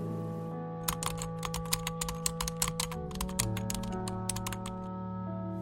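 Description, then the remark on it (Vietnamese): Quick, irregular clicking of keys on a computer keyboard as someone starts writing a story, clear over a steady low hum of background music, with no one speaking. “Tôi không xem phim nữa, cũng đặt cuốn sách của Haruki sang một bên và bắt đầu gõ bàn phím”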